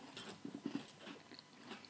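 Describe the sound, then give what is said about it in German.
Quiet crunching of someone biting into a crisp Oreo cookie and chewing, a few irregular crunches in quick succession with no talking. “Normalerweise kann ich drei, vier, fünf Oreo-Kekse essen, aber in dem Fall bleibt es bei dem einen.”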